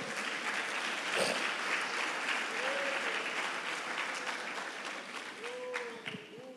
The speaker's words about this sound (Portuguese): Levante as suas mãos e aplauda Jesus mais uma vez.